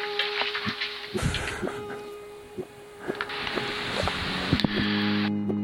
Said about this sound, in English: They're on the phone. You can just hear that apple being moved around their mouth. Who does that?